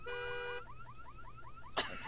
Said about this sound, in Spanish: Y la, alarma. Todavía. No, se oía lejos allá, güey.